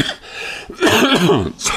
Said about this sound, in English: Oh god, I'm coughing up this really gross, musty rust um, taste, and it's been disgusting.